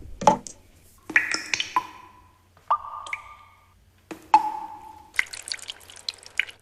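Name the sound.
water drops dripping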